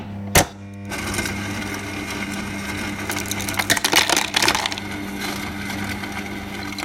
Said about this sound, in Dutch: er zit een water- en ijsklontjesmachine in de koelkast. Dat maakt een hoop geluid.